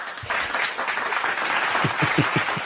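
Steady applause from a crowd, a dense wash of many hands clapping at moderate loudness, with a few sharper individual claps standing out near the end.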